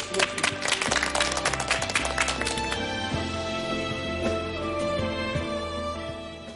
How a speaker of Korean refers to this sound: 강연 주신 우리 교수님께 다시 한 번 큰 박수.